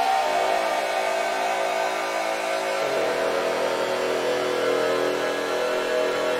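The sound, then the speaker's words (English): A dense, sustained synthesizer delay feedback drone with stacked harmonic tones, roughly steady in loudness, that shifts its pitch abruptly about halfway through when a preset voltage source controlling the delay time is switched, and keeps droning afterward. No one speaks. “So by switching one of those, I can change uh, this feedback drone.”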